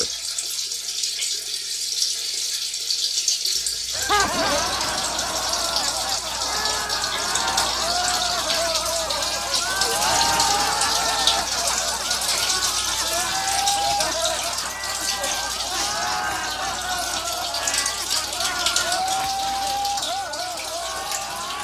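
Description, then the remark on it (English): A man urinates, a steady stream of liquid splashing and trickling continuously, while a crowd of voices laughs and chatters behind him, with bursts of giggling rising over the running water. “where you know someone's peeing and then crowd behind him is laughing.”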